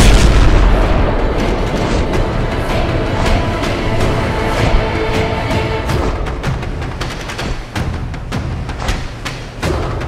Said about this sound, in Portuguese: A flecha vai indo, na hora que ela bate naquele barco imperial enorme, o barco explode.